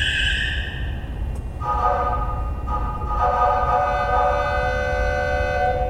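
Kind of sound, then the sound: sound effect, train whistle sound effect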